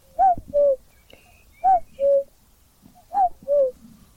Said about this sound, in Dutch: Koekoek. Ja, de koekoek die hoor je echt.